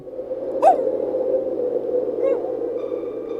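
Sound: dogs howling at night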